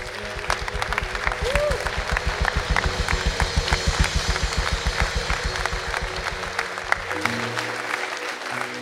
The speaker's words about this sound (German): Amen. Lass uns Gott mal einen großen Applaus geben.